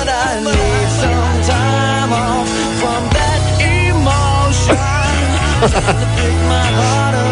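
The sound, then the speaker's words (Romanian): A rock cover song plays loud and continuous, with a heavy, steady bass line, dense full-band instrumentation and a sung vocal melody weaving over the top throughout. “Hai încă un pic și se termină piesa, ia.”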